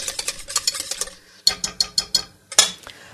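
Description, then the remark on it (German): A spoon stirs a thick flour mixture in a pot as it is brought to a boil, with quick, rhythmic scraping strokes, pausing briefly, then resuming and ending with a sharper clink against the pot. No one speaks. “Aber nicht vergessen umzurühren, damit das nicht anbrennt.”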